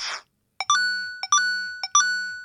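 Retro 8-bit sound effects from a purchased sound pack, played while using the Clear app: a brief noisy burst, then three evenly spaced chiptune blips, each a quick pop followed by a bright, buzzy sustained tone. No one speaks.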